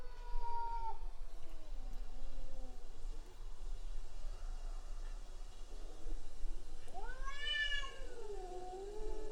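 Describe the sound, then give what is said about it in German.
Two cats in a territorial fight yowl and caterwaul in long, wavering, drawn-out cries, one stretched call at the start and another rising and falling wail near the end, with a quieter lull between and no talking. “die hat Revier gegen so eine andere Katze”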